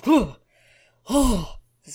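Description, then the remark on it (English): A voice imitates desperate gasping for breath: two loud, strained vocal gasps about a second apart, with a third starting at the very end. “gasping just of BJ as he has his one hit point left.”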